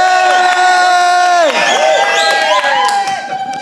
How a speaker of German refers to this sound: Auf 13 wir runter und wir jubeln so laut wir können, was wir das da ausdrücken, wenn da Deutschland Weltmeister geworden ist oder auch wieder wird. Drei, zwei, eins. Yeah!